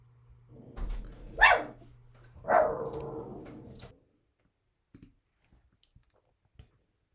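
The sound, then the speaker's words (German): An excited dog, stirred by someone arriving home, lets out two loud barks about a second apart, the second trailing into a whine. A few faint clicks follow in near silence. “Sorry, da ist gerade der Guido nach Hause gekommen und mein Hund war ein bisschen aufgeregt.”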